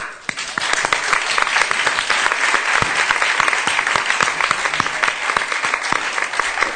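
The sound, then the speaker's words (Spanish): Sustained applause from a studio audience welcoming a pair of contestants called up, a dense steady patter of many hands clapping at an even loudness for several seconds, with no voices standing out. “y por favor, que venga y un aplauso para ellos.”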